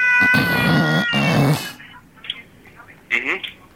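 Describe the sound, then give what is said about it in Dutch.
A human voice imitates the drumming of a common snipe with two loud, wavering, bleating bursts, followed by quieter scattered vocal noises. “Het snorten van de horse. Dus bij de mens klinkt dat zo.”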